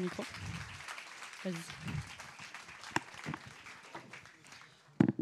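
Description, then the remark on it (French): Steady applause from a conference audience applauding the performers one last time, a dense crackle of many hands clapping, with voices and scattered cheers mixed in and a sharp burst of claps near the end. “Je pense qu'on peut encore les applaudir une dernière fois.”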